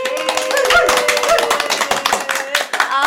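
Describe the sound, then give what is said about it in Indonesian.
A small crowd claps briskly, steadily and loudly, with a few voices whooping and cheering over the applause for a few seconds, welcoming national athletes of Lembaga Administrasi Negara (LAN). “Tepuk tangan dong buat kita dong.”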